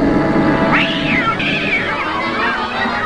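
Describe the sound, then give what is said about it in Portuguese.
A cat meows two or three times in a row, drawn-out rising and falling cries, loud over a steady background hiss, with no talking. “Miau, miau. miau, miau”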